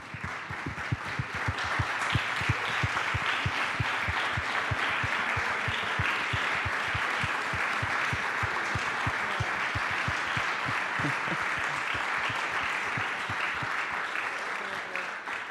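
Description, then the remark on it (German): A church audience bursts into sustained applause for the people who serve in ministry at the church as they stand up, many hands clapping in a dense, steady patter that holds at an even, loud level for about fifteen seconds. “Also kann einfach jeder, der hier irgendwo mitdient, sich bitte hinstellen, dann können wir euch einen Applaus geben.”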